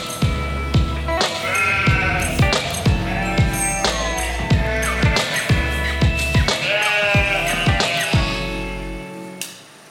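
A flock of sheep bleats continuously and loudly, many overlapping wavering calls coming one after another, with no talking.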